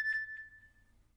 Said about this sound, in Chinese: 手机又响了，还是杨小环发来的